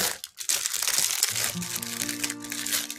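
Continuous crinkling and rustling of plastic packaging while putting things away into a refrigerator, busy and textured throughout, with a faint low hum underneath in the second half.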